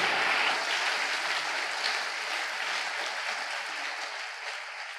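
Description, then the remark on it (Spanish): An audience applauds the Lord steadily, a dense wash of many hands clapping at even loudness for the whole stretch, easing off only slightly toward the end, with no one speaking. “él aplauso al Señor fuerte.”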